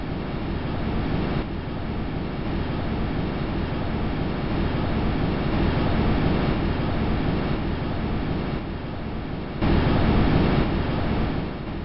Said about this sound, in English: The sounds of nitrogen swirling around the spacecraft. Getting softer and softer as Huygens approached the surface.